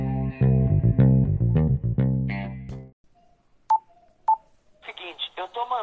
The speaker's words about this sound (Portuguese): Solta a vinheta aí, meu boy